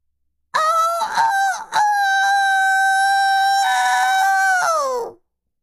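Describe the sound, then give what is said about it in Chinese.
A rooster, head raised toward the sky, crows once in a long, strained call, starting with a few rough broken notes before settling into a sustained high, harmonic-rich cry that fades off after about four seconds. “在一片寂静当中，皮迪克用尽平生之力，昂首向天空发出一声鸣叫。”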